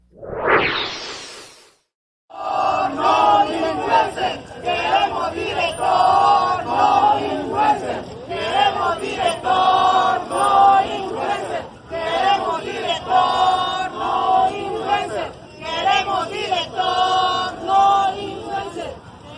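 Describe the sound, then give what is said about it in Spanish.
ISTE hospital staff protesting in the street, blocking Boulevard 14 Sur, chant slogans in unison such as "queremos director, no dictador", a dense rhythmic roar of many voices that rises and falls for about seventeen seconds, preceded by a brief sweeping whoosh and a short silence. “Al grito de queremos director, no dictador, el personal obstaculizó la circulación vial hacia San Manuel, hacia Plaza Dorada y el centro de la ciudad.”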